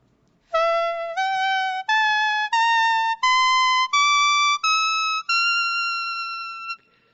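A leaf whistle made from a single spathiphyllum houseplant leaf plays a rising eight-note do-re-mi scale, each clear, reedy tone held about a second with brief breaks between, loud, the final note sustained longest.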